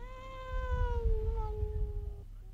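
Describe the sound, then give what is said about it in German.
A single drawn-out meow from Sebastian the tomcat, clear, sliding slowly downward in pitch over about two seconds, with a low rumbling background beneath it and no talking. “Als die Polizei fünf Minuten später das Haus betrat, wurde sie nur von einem einzigen Überlebenden begrüßt. Es war Sebastian der Kater.”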